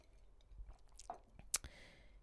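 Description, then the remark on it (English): Someone takes a quiet sip of wine, with soft wet mouth sounds, a brief swallow and one sharp click near the end, and no talking. “Now, let's take a sip of wine cuz I'm not done yet.”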